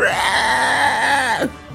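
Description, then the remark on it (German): A voice imitates a creature's pitiful, drawn-out squeal as it is stabbed in the leg with a dagger, a single whiny moaning cry with a wavering pitch that rises and then dips before cutting off abruptly. It is loud. “quietscht und grunzt ganz erbärmlich.”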